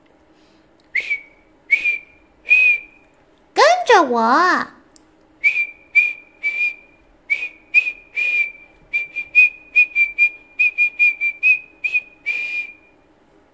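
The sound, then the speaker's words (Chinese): A whistle, taken by the seagull from around his neck, blown in a long series of short, shrill blasts at a steady high pitch, coming quicker toward the end, with a brief spoken phrase breaking in early on. “这时，海鸥从他的脖子上拿起了一个哨子，”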